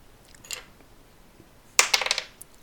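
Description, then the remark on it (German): A die is thrown from the hand onto a hard tabletop, landing with a sharp clack and rattling briefly before settling on a 7. A couple of faint clicks come just before it, with no talking. “Hm, ich nehme einen Würfel. Ich werfe ihn aus der Hand. Der landet mit einer 7, müsste ich treffen, ne?”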